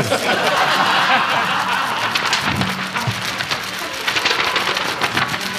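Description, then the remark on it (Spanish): A distant-thunder sound effect made by shaking a flexible cardboard sheet: a steady, loud rattling rumble that carries on for several seconds like far-off thunder over rain, with faint chuckling in the background. “Estamos, estamos agitando un cartón flexible.”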